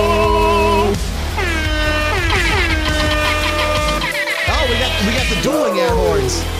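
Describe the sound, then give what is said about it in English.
Loud, overlapping air horn blasts clash against each other, their bending pitches sliding up and down in a chaotic, continuous blare that fills the whole stretch with no pauses. “The dueling air horns this week.”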